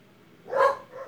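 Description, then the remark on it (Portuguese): A single sharp dog bark rings out at moderate volume, followed by a softer trailing yelp, with faint background noise and no talking. “Cachorro, cala a boca aí, ô!”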